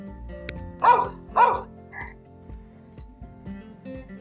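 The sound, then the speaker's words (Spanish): A dog barks twice in quick succession, loud, followed by a fainter, shorter yip. There is no talking, only a quiet background. “Era la historia de Ana la rana que tenía dos amigos, un caballo y un perro.”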